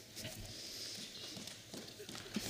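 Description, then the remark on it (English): An audience taps their fingers on the pages of their open Bibles, pointing to verse 15 of Romans: a dense, irregular patter of many small thumps, fairly loud and steady, with faint murmuring voices underneath. “Open your Bibles. Where are you? If you're there, point to it very loudly.”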